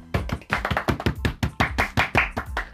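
Quick, steady hand clapping for a commenter named Ted, roughly fifteen sharp claps in under three seconds at an even rhythm, fairly loud with no voices over it.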